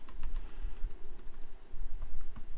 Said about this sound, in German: Jetzt muss ich mal gucken, das habe ich mich hier vertippt.